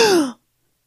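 A single sharp, breathy gasp from a voice, loud and brief, its pitch sliding downward before cutting off into silence, made at home on seeing a phone call come in.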